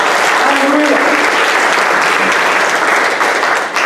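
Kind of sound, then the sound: crowd, loud audience applause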